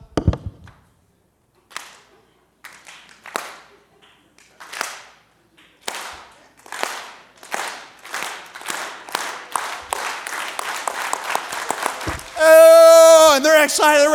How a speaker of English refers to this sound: I, I imagine them starting like a, a slow clap. You guys know a slow clap?